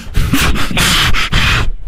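A woman breathes heavily into a phone: loud, raspy, hissing breaths in about four quick pulses, each rough and airy, with no words spoken.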